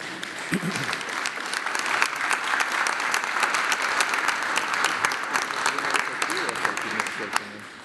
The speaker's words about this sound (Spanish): Pues ya terminamos con esto. Eh, un aplauso